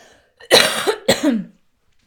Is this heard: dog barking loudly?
no